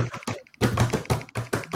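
Loud keyboard typing: rapid clusters of clacky keystrokes arriving in quick bursts with brief pauses between them.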